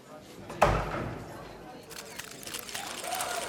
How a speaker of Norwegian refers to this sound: Så går døra opp.